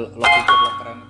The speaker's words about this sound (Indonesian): suara notifikasi kan